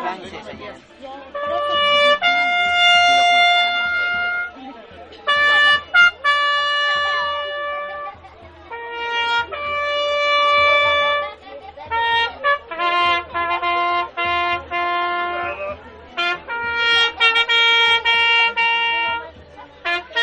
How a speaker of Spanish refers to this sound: En ese mismo contexto eh, ha sido sumamente interesante ver dos grupos de mariachi, ah, dando también sus músicas en, en Todos Santos. Escuchemos uno de ellos.